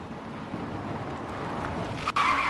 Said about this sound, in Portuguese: Estacionei meu carro e me dirigi até o escritório.